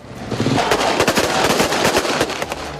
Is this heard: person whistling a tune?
no